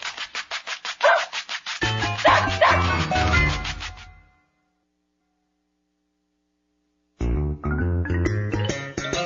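A dog barks in a rapid, loud run of yaps for several seconds, falls silent apart from a faint hum, then starts barking again.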